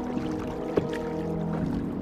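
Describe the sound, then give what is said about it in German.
A small brook babbles gently and steadily at night, a soft continuous trickle with one brief splash partway through and no voices. “Nur das Bächlein plätschert noch immer sanft vor sich hin.”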